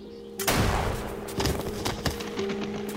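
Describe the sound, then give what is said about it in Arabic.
A sharp gunshot cracks out loud and sudden, followed by a few more fainter bangs and thuds over a steady low hum. “الجد استغرب وجمد في مكانه ويستقبله بطلقة قاتلة”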